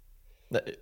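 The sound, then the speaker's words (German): A single sharp sneeze bursts out after a brief quiet moment, quick and forceful, then fades. “Gesundheit.”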